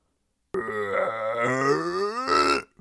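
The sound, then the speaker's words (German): A person makes a drawn-out, low growling noise with their voice, rough and grumbling like a rumbling stomach, lasting about two seconds with a harsher burst at the end. “hast du so einen Hunger, dass dein Magen so knurrt?”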